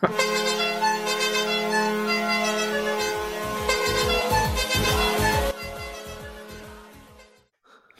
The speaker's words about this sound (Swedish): Att Emanuel Forslund har letat fram Västerviks tuta och kör den i eh, bästa sändningstid.